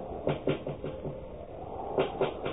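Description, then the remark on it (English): A series of muffled knocks and taps comes from behind a closed door: a quick run of five or so, a pause, then three more, all sounding dull. “A knocking. Tapping.”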